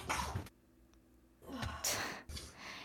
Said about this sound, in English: Uh, and I'm about to sneeze.